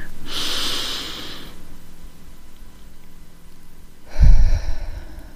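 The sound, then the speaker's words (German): A slow, deep inhale through the nose with a hissy airy rush, a pause, then a breathy exhale through the mouth ending in a low puff, done as a breathing exercise; no talking. “Und noch einmal tief durch die Nase ein. Und durch den Mund wieder aus.”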